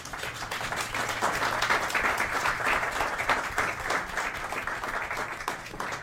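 Sustained applause from a crowd, a dense steady patter of many hands clapping for about six seconds at an even, fairly loud level, with no voices rising above it.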